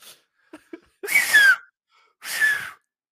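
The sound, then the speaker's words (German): Two loud, breathy wheezes, each with a thin whistling tone sliding through it, separated by a short pause, preceded by a few faint clicks. No talking. “Hör auf jetzt mit dem Pfeifen, bitte.”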